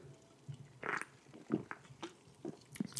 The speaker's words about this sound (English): but first, I'm going to take a sip of my... I've got a Blue Monster today, and I have to say